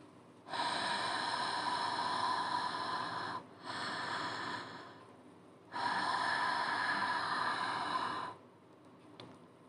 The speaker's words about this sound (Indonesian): Karena selain suara bambu yang dipukul-pukul, terdengar juga suara nafas dari balik jendela. Suara hembusan nafas yang cukup panjang terdengar di sela-sela suara bambu.